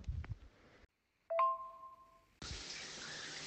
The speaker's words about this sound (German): Und jetzt gehe ich unter die Dusche.